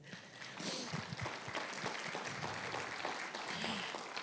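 An audience applauds the Lord, many hands clapping in a dense, steady roar that holds fairly even for about four seconds, with a few faint voices mixed into the clapping.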